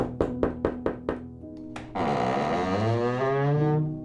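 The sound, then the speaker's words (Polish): Five quick, evenly spaced knocks on a door, fairly loud, followed by a single sharper rap and then a sustained musical drone that swells and fills the rest. “Posmarował sobie twarz na brązowo i czarno, wcisnął głęboko na oczy czapkę i zapukał do drzwi.”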